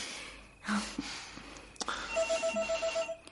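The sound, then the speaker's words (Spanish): A telephone rings with a rapid, evenly pulsed electronic trill, clear, preceded by a couple of soft knocks and a sharp click, as a man gets up and goes to the phone. “Él se levanta y se acerca al teléfono.”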